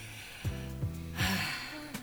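A single close-up yawn, a breathy intake swelling into a soft airy exhale, heard alone against a quiet steady hum of background tones.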